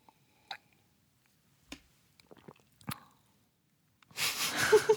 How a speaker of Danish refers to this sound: Måske det er den her champagne, jeg virkelig skal nyde. Mm. Så er lige en ordentlig slur. Ja, jeg nyder lige champagne. Hør mig lige nyde det. Mm.